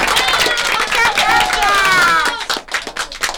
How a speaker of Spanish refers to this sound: Excelente, excelente, un aplauso. aplaudimos.